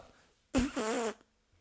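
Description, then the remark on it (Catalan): A person blows a loud, drawn-out fart noise with their mouth, a buzzy, wavering raspberry lasting about half a second before cutting off into quiet. “Haig de fer un soroll de pet, ara.”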